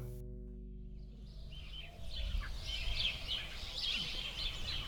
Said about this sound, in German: Ähm, ja, die Vögel, wenn die Sonne scheint, hört man auch zwitschern.